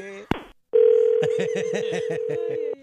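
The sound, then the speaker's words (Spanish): A sharp click, then a steady, unbroken telephone tone after a dropped call holds at one low-mid pitch for about two seconds while a muffled voice talks over it, and the tone cuts off abruptly. “Parece que se cayó la comunicación.”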